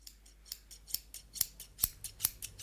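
Scissors snip steadily through fabric strips, a quick run of crisp, bright clicks with a soft rasp of cloth between them, about four or five cuts per second, with no one speaking.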